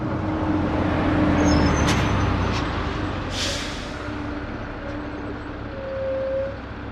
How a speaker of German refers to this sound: Dann hält der Bus an. Pause an einem der Rastplätze.